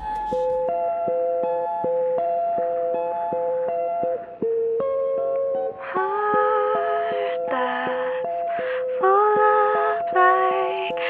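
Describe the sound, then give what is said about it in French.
A clean guitar picks a gentle melody, then a thin, band-limited singing voice joins over it, sounding tinny and lo-fi as if sung through an old telephone handset. “joue le thème sur sa guitare et chante dans un vieux combiné de téléphone, ce qui lui donne ce côté vintage du meilleur”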